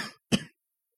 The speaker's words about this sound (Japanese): ちょっとあの、咳込みます。